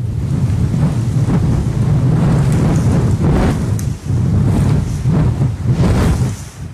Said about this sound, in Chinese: 喜欢听风吹过的声音。